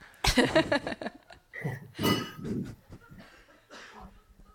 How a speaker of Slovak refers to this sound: keď nás počujete, môžete si stíšiť telefón, lebo počujeme vaše taniere.